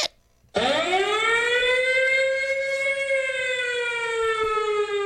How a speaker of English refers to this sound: Sound the motherfucking alarm, please, man.